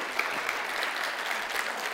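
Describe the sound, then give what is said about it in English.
An audience at a church sermon claps steadily together for God, a dense wash of many hands forming a continuous, even roar of applause with no voices standing out. “Yeah, go ahead and clap.”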